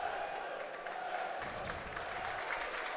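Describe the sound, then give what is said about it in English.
A stadium crowd at a football match involving Wrexham breaks into a steady round of applause as substitutes Davies and Lee come out to warm up, dense clapping blending with a broad murmur of voices, holding at an even level throughout. “As the subs come out to warm up Davies and Lee and get a good round of applause.”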